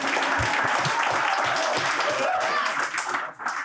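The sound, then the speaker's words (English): An audience at an evening event applauds loudly and steadily, a dense wash of many hands clapping that keeps up throughout, with a few faint voices mixed in before it thins slightly at the end. “a big applause for yourselves too.”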